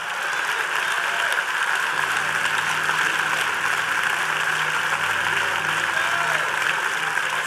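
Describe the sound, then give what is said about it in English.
A large crowd claps steadily and loudly for several seconds in praise to God at a sermon, a dense, continuous wash of applause with indistinct voices and cheering blended into it. “Clap your hands and shout.”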